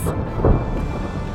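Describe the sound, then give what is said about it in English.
A deep, rumbling thunderclap rolls through a steady wash of storm noise, loud, with a low boom peaking midway before settling back into the continuous roar. “From the bottom, of Titan's freezing hydrocarbon oceans to the giant red spot on Jupiter, a storm that's bigger than Earth itself.”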